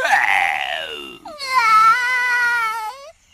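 A baby fox crying in two loud, drawn-out wails: a brief falling sob, then a longer high-pitched wavering cry. It sounds like a human voice imitating the cub, with no talking.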